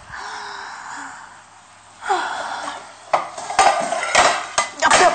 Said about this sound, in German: So, hier schon mal Salat auf dem Teller.